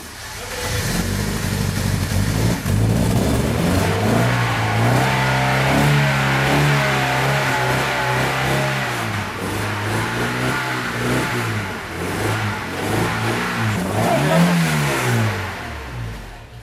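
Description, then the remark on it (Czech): A vintage rally car engine from the Winter Trial, a 2,800 km long-distance veteran car rally through Czechia, Poland and Slovakia, runs loud, its pitch rising and falling through repeated revs, with a sharper rev climbing near the end. No one speaks. “Dálková relí veteránů Winter Trial dlouhá 2800 kilometrů má za sebou další ročník.”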